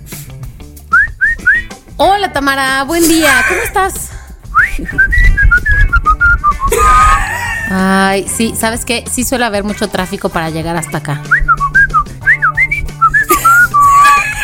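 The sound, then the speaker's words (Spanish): A woman whistles melodic, speech-like phrases for a listener to translate, with rising and falling pitch, alternating with a woman speaking Spanish; the whistled bursts come in short, lively runs between spoken lines. “ella te lo va a silbar y tú vas a ir como traduciendo y entendiéndola perfectamente”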